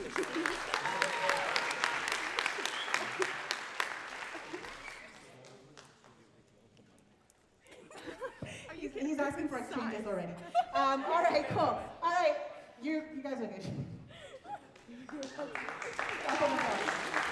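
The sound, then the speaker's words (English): A crowd gives a round of applause for the seniors and their parents, clapping steadily for several seconds, fading out, then voices chatter and call out before another burst of loud audience applause rises at the end. “So again, another round of applause, please.”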